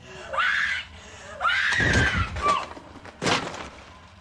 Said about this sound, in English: The image of Mike standing in the corner and Heather's happen. anguished screams cutting to silence haunted moviegoers for years.